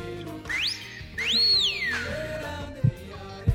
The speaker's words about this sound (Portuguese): Eu tava só esperando, viu? Meu assobio chegar. Tava esperando a subir, tá certo.